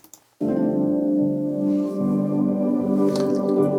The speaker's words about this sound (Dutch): Hier hoor je heel zachtjes een. Ehm, hoor je die? Een beetje die spacey geluiden. Ja, ja. Ehm, die harp is nep. Allemaal dit soort spacey geluiden.